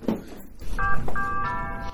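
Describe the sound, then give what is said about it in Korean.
A two-note doorbell chime rings at a house in Duluth, USA, a short first tone followed by a longer sustained second, over a steady hiss of rain falling outside. “집 앞에 주차를 하고 초인종을 눌렀습니다.”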